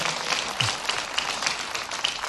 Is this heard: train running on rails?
no